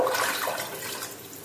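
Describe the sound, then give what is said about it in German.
Water rushes steadily into a cooking pot holding tomatoes, a continuous splashing pour with a bright hiss, lasting about a second and a half without any voices; stock cubes go in with the water. “Die Tomaten rein. Wasser und Brühwürfel. Wasser.”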